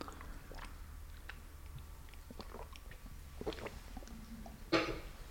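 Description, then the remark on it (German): Someone drinks a glass of water during an interview: soft wet mouth clicks and quiet swallowing sounds over a low steady hum, ending with one louder gulp or splash near the end. No one speaks. “Wenn du dieses Glas Wasser jetzt trinkst”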